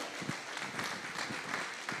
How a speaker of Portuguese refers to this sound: Dê glória a Deus, aplauda o Senhor. Aleluia.